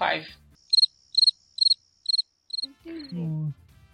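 A cricket chirping sound effect: five short bursts of chirping arrive at a steady rhythm, each a quick trilled pulse, clear and isolated before a low murmuring voice-like sound follows at the end.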